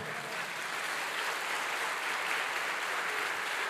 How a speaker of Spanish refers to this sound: Ahora déle un fuerte aplauso al Señor.